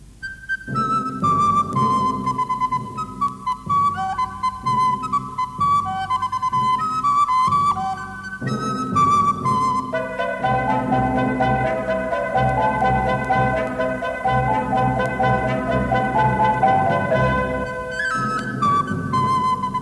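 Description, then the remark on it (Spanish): Bright flute melody carried over a full, steady accompaniment of timpani, trumpets and xylophone, with sustained harmonic lines and rhythmic low hits throughout; no voices, just continuous lively instrumental music. “Hablemos de cosas bonitas, de pajaritos, de cantos, y pongamos la música de la flauta, que es tan linda. ¡Sale! Música para flauta con timbales y trompetas y gilófono.”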